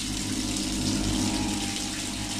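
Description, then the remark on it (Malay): Water gushes from a shower pipe in a toilet, a steady, continuous hiss and splash, loud, with no talking and no break throughout. “buka pintu toilet cekok Paip hujan mencura-cura air keluar.”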